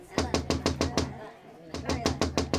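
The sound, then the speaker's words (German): Someone raps on a door on a winter day, in two quick bursts of sharp knocks, about five in each, separated by a short pause. The knocks are fairly loud. “Da klopfte es plötzlich an der Tür.”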